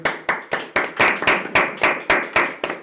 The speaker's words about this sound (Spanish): un aplauso para ellos.